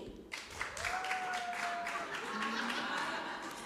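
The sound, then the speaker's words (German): An audience claps to show who has wine, in a dense, steady patter of many hands for several seconds, with a long whistle or whoop and some voices mixed in over it. “Oh, Und jetzt einmal klatschen, wer hat alles Wein?”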